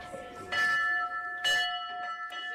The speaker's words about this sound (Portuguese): A pediatria do IPO do Porto tem um sino que toca a esperança.